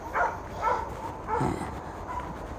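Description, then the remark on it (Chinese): Three dogs, chained by an old farmer on the embankment of the Touqian River and left out in the wind and rain, bark in a few short, mid-pitched bursts, about four barks spaced irregularly over a couple of seconds, with steady background noise and no talking. “沿着头前溪的河堤，有老农呢，拴死三条狗，哎，吹风晒雨。”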